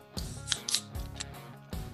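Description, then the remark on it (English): A drink bottle being cracked open and foaming over onto a keyboard, with a few short, sharp hissing bursts of escaping fizz and a steady low hum running underneath. “So let's crack this thing open yeah.”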